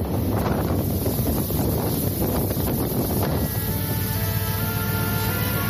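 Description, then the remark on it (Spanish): Steady, loud wind buffets the microphone over a broad wash of open-water noise on the Indian Ocean, with a low rumble throughout and faint tonal hums emerging toward the end; no voices are heard. “Deja que me traslade en este momento hasta el Océano Índico.”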